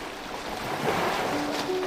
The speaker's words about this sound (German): begleitet vom beruhigenden Rauschen des Meeres und dem Rufen der Vögel.